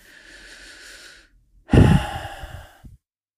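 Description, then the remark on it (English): A slow, steady breath drawn in through the nose, a brief pause, then a louder, fuller exhale released like a sigh, with no talking. “Take a deep breath, close your eyes.”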